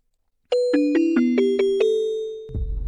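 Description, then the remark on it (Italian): A short radio jingle of six bright, bell-like chiming notes in a quick stepping melody, sustained and ringing together, followed by a low rumbling burst at the end. No voices. “Sigla.”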